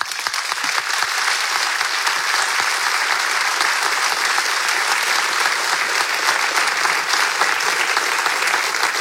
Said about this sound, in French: Donc je le dis, vous pouvez être très fiers de votre députée Fabienne Colbock, et je crois qu'on peut l'applaudir une nouvelle fois.